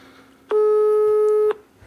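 A single one-second ringback tone from an outgoing phone call, a steady, loud electronic beep that starts and stops abruptly against quiet background hiss.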